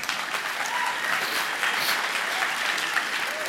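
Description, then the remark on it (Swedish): Steady audience applause fills the whole stretch, a dense, even patter of many hands clapping at a consistent moderate loudness with no voices rising above it. “Ja, klappa om ni vill där eller?”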